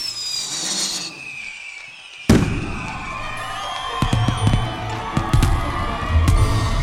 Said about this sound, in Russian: В годы его правления фейерверки устраивали в каждый значимый праздник.